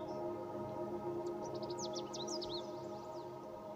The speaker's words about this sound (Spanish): Hay pájaros Puedes oír sus cantos.